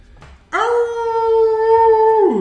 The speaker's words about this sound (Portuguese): Dá um uivo. Vocês escutam outros uivos em outros lugares.